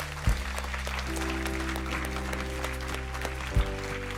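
An audience gives a last acclamation to the Lord Jesus at the close of an evening gathering in a house of prayer: a steady wash of clapping, dense and sustained over a low sustained organ-like tone, with a couple of sharp thumps at the start and near the end.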